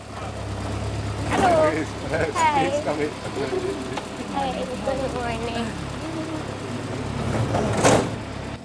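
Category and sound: vehicle, small bus driving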